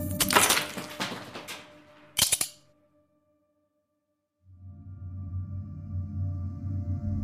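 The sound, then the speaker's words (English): A nutcracker cracks an ice cube on a balcony: a sharp, loud crack rings out, followed by a brief burst of splintering snaps near 2.3 seconds, then silence before a low, steady hum rises and continues. “on the balcony by himself regards the contract, tears up the contract, takes a puff of his cigarette, picks up the nutcracker and cracks the last ice cube.”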